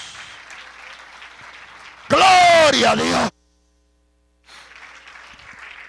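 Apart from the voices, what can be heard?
audience applause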